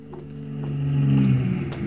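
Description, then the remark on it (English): An official car's engine approaches and revs up, its low, steady drone swelling in loudness over a couple of seconds before easing slightly at the end. “The headlights of the official car came out of nowhere around a corner and blinded me.”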